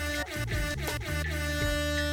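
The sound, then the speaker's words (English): A loud, deep horn blast holds steadily for about two seconds, its droning tone swelling slightly with a few brief pulses, with no voices present. “you know, a little foghorn action.”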